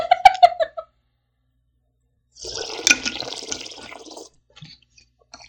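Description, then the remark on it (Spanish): A sip of water: a gurgling, splashing swish of liquid lasting over a second, after a few short bright squeaky tones at the start, then quiet with a couple of faint clicks. “O sea, le parece tomar un traguito de mi agua.”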